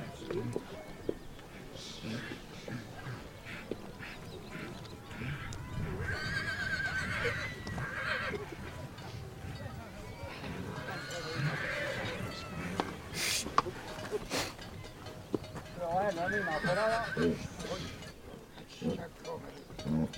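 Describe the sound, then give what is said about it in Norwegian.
Horses whinny and neigh several times in loud bursts over about twenty seconds at a horse event with free dressage, with hooves clip-clopping and a murmur of background voices throughout. “Så, men hør litt på disse lydene først, og så følger jeg opp med et par intervjuer, tenker jeg.”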